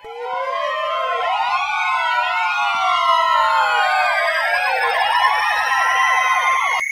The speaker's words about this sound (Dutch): U hoort nu zeven sirenes die tegelijkertijd afgaan waarbij u vooral moet letten op de drietonige vijfde sirene die ermee te maken heeft dat die vijfde sirene drie tonen heeft, omdat die eerste het niet helemaal goed doet. Let u maar op.